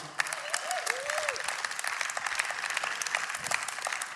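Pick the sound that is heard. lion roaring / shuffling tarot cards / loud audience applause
loud audience applause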